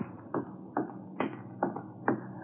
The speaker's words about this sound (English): I could hear her high heels clicking toward him.